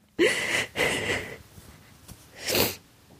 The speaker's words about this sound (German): Das ist jetzt richtig bescheuert, weil jetzt machen wir ja eine Podcast-Folge über das Weinen, also muss ich ja auch irgendwie euch daran teilhaben lassen, wie das ist, wenn ich weine. So klingt das.